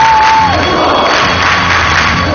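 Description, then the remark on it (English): A large crowd at the cave church in Egypt roars loudly and continuously, a dense wash of many voices clapping and chanting the name of Jesus, "Yeshua", together, with a sustained shout rising briefly above the din near the start. “They clapping and they, they call the name of Jesus, Yeshua.”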